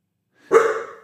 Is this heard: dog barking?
yes